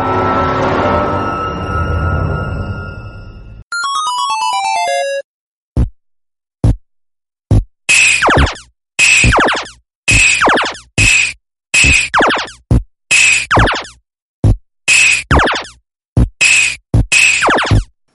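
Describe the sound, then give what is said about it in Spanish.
Strange noises from an old arcade video game machine, as once heard in amusement arcades or bars: a harsh crashing burst, a stepped falling synth tone, then a fast run of loud, bright zaps and bleeps repeating in quick rhythmic bursts, with no voices. “Este ruido tan extraño es lo que podías escuchar si eres el afortunado que cerca tenía o bien un salón recreativo o un bar, porque antiguamente eh, no había consolas de sobremesa, había muy poquitas”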